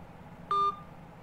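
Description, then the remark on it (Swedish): A single short electronic telephone ringing tone from an outgoing call sounds once, steady and clear for a fraction of a second, standing out against a faint background hum. “Så många signaler kan man liksom inte ringa till någon.”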